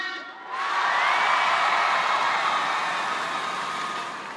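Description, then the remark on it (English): A large audience bursts into loud cheering and applause welcoming Chrysler executive Jim Press, after a brief pause, the roar holding steady and full for several seconds with scattered whoops mixed in. “I wanted to make sure I could get applause.”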